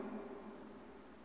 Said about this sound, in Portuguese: Está ouvindo o barulho dessa chuva aí, ó?